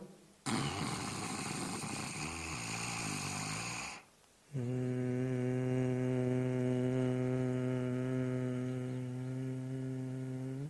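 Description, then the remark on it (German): A person doing a voice and throat exercise takes a loud, rasping snore-like breath in for a few seconds, pauses briefly, then exhales with a long, steady, buzzing hum like a bee, sustained. “Sieht so aus, dass du beim Einatmen einen Schnarschklang machst und beim Ausatmen den Klang einer Biene.”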